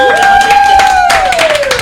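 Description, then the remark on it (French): Loud, dense applause from a group, the claps merging into a steady patter, with a long sustained whistle-like tone gliding slightly downward over it. “On peut applaudir.”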